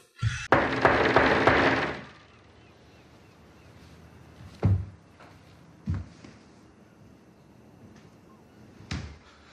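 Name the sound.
pounding on a door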